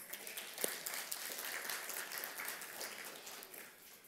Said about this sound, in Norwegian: Skal vi gi han en applaus?